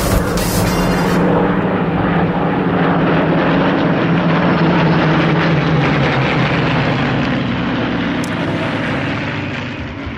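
Heavy WWII propeller warplane engines, as heard by the British during the Battle of Britain, roar overhead in a loud, continuous, throbbing drone that holds steady for the whole stretch and eases slightly at the very end. No voices are heard.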